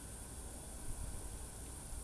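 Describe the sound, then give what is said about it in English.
A person makes a steady, unbroken hissing sound, soft and airy, lasting the whole two seconds with no pauses and no talking. “The hissing in the background is uh, is”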